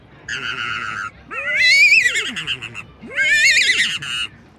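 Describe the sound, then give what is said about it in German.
A voice imitates a stallion's whinny twice, each a loud, shrill, quavering neigh rising and then sliding down, after a short buzzy lead-in, with no talking. “Machst du Pferdel, machst du einen Hengst?”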